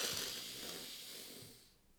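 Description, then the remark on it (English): A person yawns, one long breathy exhale with a raspy edge that holds for over a second and then trails off quietly. “That just gave my brain a whole bunch of oxygen.”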